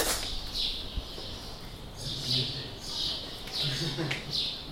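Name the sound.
birds chirping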